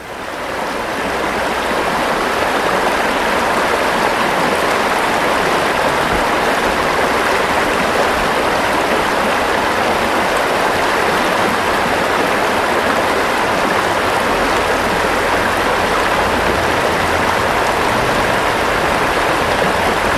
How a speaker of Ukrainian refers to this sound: Дбайлива рука обладнала джерельце спеціальною дощечкою і жолобком. Тепер вода тоненькою цівкою стікає вам просто в горнятку.